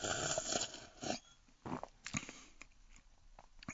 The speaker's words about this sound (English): But uh, so let's let's take a sip now, huh? Absolutely.